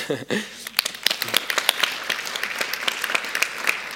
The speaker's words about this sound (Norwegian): Skal vi bare gi dem en klapp kjapt?